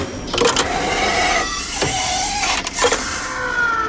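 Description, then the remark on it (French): The coffee machine of Radio Classique runs with a steady mechanical whir and hum, broken by a few sharp clicks and surges as it grinds and pumps. It is fairly loud, with no talking over it. “Oui, c'est la machine à café de Radio Classique, exactement.”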